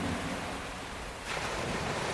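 Ocean surf washes steadily onto a beach, a broad hiss of breaking water that swells again after a brief lull, with no voices present.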